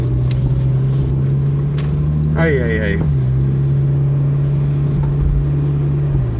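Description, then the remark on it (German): Steady road rumble and wind rush fill a car driving with its window open at 31 degrees on the way back from work, with a constant low engine drone throughout; a man briefly exclaims partway through over the unbroken noise. “Deshalb muss ich euch schon wieder mit Nebengeräuschen nerven, weil ich bei offenem Fenster fahre.”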